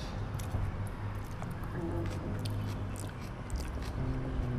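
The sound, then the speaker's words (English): Steady crunching and chewing of crisp fresh vegetables during a vegetarian lunch, with wet snaps and bites repeating over a few seconds and a low background hum. “Vegetarian lunch. It's crunchy and yummy.”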